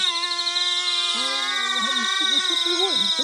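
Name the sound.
insects chirping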